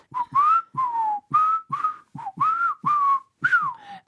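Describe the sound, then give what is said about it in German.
Someone whistles a short greeting tune up close: about nine clipped, sliding notes in a choppy, speech-like rhythm, fairly loud, with brief breathy gaps and no talking. “Ich dachte, ich könnte die Begrüßung heute mal pfeifen.”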